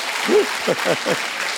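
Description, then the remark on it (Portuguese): An audience claps loudly for Jesus, a dense, steady wash of many hands, with voices calling out and cheering over the applause. “Se você crê, dê uma forte salva de palmas para Jesus.”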